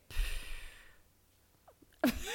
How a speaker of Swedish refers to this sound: Eh, och det det handlar om där är alltså att du ska andas in när du formar, formar din mun som ett S. Stängda tänder, bred mun, andas in. Och sen så ska du andas ut som ett P, alltså ett hårt P.